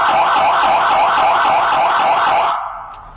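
A loud emergency vehicle siren sounds the warning tone used at crossings and intersections to alert drivers it is passing, a fast, steady warbling wail that rises and falls rapidly in pitch, then cuts off abruptly near the end.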